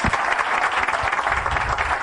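An audience claps steadily, a dense wash of many hands at a fairly loud, even level with no pauses, lasting a couple of seconds without any voices on top.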